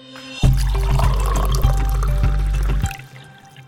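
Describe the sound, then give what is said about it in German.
Coffee streams steadily into a cup for a couple of seconds over a low, droning hum, fairly loud, then stops abruptly; no one speaks. “wenn ihr jetzt nicht so richtig gut geschlafen habt, dann holt euch doch erstmal einen Kaffee, bevor wir ins Thema einsteigen.”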